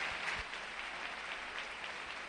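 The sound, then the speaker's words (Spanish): A stadium crowd at a Real Madrid versus Betis football match applauding steadily as Madrid sportingly gives the ball back to Betis, a dense wash of clapping that holds at an even level throughout with no voices standing out. “Deportivamente el Madrid regala el balón y hay aplausos de escalera.”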